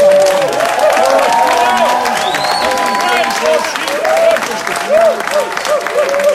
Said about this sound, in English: I'm going to invite you to give him a massive round of applause and a cheer like you've never. Imagine this is the winning goal.